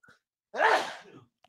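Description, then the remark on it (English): A single sharp, explosive sneeze bursts out, loud and brief with a breathy trailing off, and nothing else around it but silence. “Bless you.”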